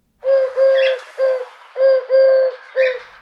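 A wood pigeon, one of a pair in a tree, coos in a steady rhythmic phrase of about six soft, hollow notes, some paired closely together, loud and clear with no other sounds around it.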